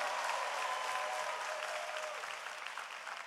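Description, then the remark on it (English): Steady applause from an audience for a small group standing and waving before the crowd, a dense wash of many hands clapping at once, loud and sustained throughout, with a faint whistle-like tone briefly riding over it. “Come on, give them a bigger hand clap than that.”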